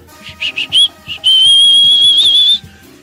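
Someone whistles a few quick, short notes, then holds one long, steady, high whistle for over a second before stopping. It is clear, with no talking over it.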